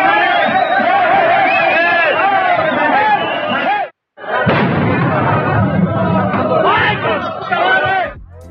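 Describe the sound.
A loud protesting crowd of members of Section 22 of the Coordinación Nacional de Trabajadores de la Educación shouts and chants outside the Palacio Nacional as they try to enter to deliver a list of demands, with dense overlapping voices and rumbling thuds, broken by a brief silence partway through before the din resumes.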